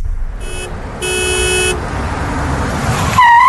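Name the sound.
car horn honking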